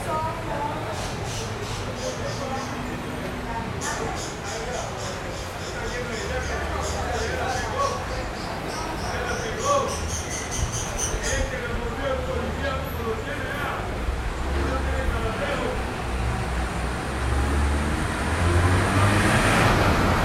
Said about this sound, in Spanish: queremos escuchar cómo se oye en estos momentos el barrio Campo Valdés en esta cuarentena por la vida. Vamos a escucharlo.